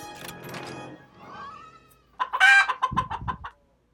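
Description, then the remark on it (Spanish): A chicken clucks in a quick, choppy string of loud, bright squawks, preceded by a short rustle and a rising warbling note, marking the chicken face (face 6) opened in a game; no one speaks. “Cara 6, cara de pollo, cara 6, cara de pollo.”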